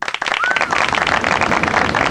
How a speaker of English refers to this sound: And the crowd goes wild.